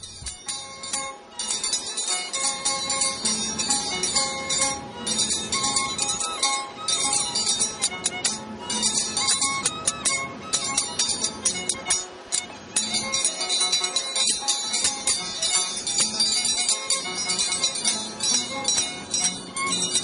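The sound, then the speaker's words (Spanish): Andean scissors dance music, with bright, rapid metallic clinks ringing steadily over a continuous violin melody, loud throughout with no talking. “Entonces vamos a escuchar la danza de tijeras y el violín”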